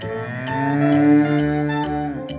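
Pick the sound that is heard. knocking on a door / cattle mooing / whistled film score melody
cattle mooing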